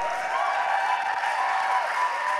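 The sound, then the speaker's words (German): Dense, steady applause from an audience, a continuous wash of many hands clapping at an even loudness throughout, with no voices standing out above it. “Ja, guck mal einen Applaus!”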